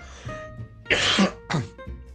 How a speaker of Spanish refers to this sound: del ayer que tengo un carraspeo.